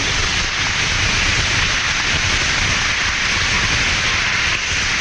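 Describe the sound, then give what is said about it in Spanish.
A crowd claps together in sustained, dense applause, a steady crackling wash of many hands that stays loud and even for several seconds with no voices standing out. “Eso, den un aplauso, por favor.”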